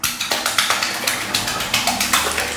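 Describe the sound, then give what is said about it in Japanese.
A hand slaps a bathtub's water surface in quick, evenly spaced splashy pats, about fourteen in under three seconds, like small rapid applause, with no talking. “拍手っぽい感じで、ちょっとね、お風呂の水面を叩いてみたりしたんですけれども、拍手は小さく細かく。”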